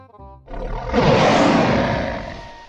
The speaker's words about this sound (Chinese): 正当逍遥恢复着刚才的紧张心情时，突然在空中传来了一声巨大的吼叫声，声音显得异常愤怒，就跟从天上传过来的一样，震得人耳朵都疼死了。